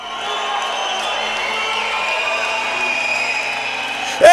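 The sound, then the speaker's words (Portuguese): A large crowd at a worship service shouts and cheers continuously, voices blending into a loud sustained roar, with a sharp whistle rising near the end. “Chega a mão para cima, dá um pulo, dá um grito, dá um assobio, mas faz alguma coisa para ele.”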